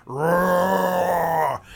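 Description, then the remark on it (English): A voice imitates a reef shark's noise with a single loud, sustained groan, steady and fairly low-pitched, held for about a second and a half before cutting off. “and lets out whatever noise a reef shark makes into the air.”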